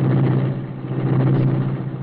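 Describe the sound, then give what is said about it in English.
A car engine roars steadily, a deep continuous rumble with a slight surge partway through, heard on its own with no talking: the Black Beauty, the Green Hornet's sleek, superpowered streamlined car, roaring into life. “Britt Reed pressed a button. The great car roared into life.”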